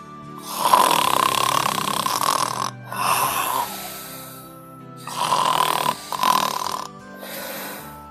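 loud snoring

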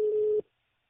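telephone call being dialed

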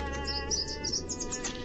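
small bird chirping

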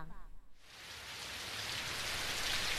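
rain falling

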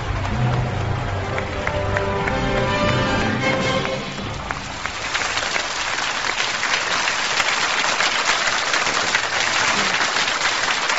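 audience applause

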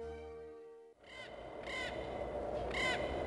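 crows cawing

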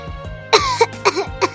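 coughing

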